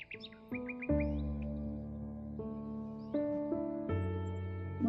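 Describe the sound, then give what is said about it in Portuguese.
A few quick morning bird chirps twitter near the start, then fade under a swell of soft sustained musical chords that carry on to the end. “muitas vezes os pássaros que começam a cantar, um veículo que passa longe.”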